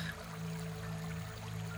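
River water splashing and babbling in a steady, continuous wash, with no distinct individual splashes and no voices.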